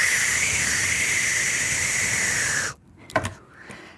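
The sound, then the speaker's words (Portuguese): A voice imitates taking a whipped cream can from the fridge, removing the cap and spraying: a steady, airy hiss held for nearly three seconds with a slightly wavering pitch, then an abrupt cutoff followed by a few faint breathy sounds. “Eu abro o frigorífico, eu tiro o chantilly, eu tiro a tampa e faço.”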